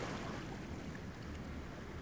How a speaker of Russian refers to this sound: Только волны плещут.